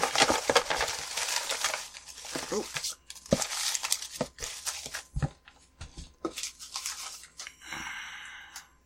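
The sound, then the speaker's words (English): Continuous rustling and crinkling of paper movie ticket stubs being shuffled around in a box, with irregular scratchy bursts; a voice briefly exclaims near the end. “Let me just shuffle up my box here.”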